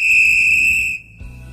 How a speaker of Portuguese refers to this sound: Apito final.